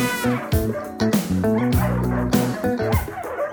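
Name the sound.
dog barking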